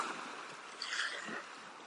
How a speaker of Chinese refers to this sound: 如果我们把很多小水滴汇集在一起，它就是一个小溪，小溪还可以流向大海，你可以听到你被大海包围的声音。